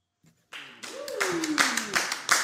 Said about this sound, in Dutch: Lekker hè, toch wel weer dat applaus.